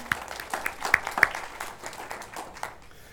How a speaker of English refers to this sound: I'm going to tell him you clap, but not how hard, because that was not good.